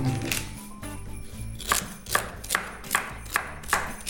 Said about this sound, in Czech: Sever se krájí, tak ty ho krájíš. Sám se nekrájí. Já teda tam strašně ráda dávám i ten, ten konec zelený.